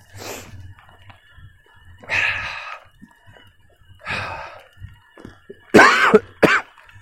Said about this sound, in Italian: Colpo di tosse immancabile. In ogni podcast nemmeno uno. A volte 100, a volte 10.